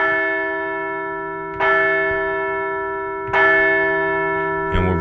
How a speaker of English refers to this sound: Hey, let's ring the bell!